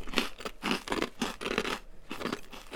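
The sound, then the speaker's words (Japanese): Crisp crunching of someone chewing hard, soy-sauce-flavored rice crackers made from glutinous rice, from Urayasu, Japan: a steady run of about five or six sharp bites with brief pauses between, with no talking. “これ、この咀嚼音が皆さんにはどう伝わってるのかな”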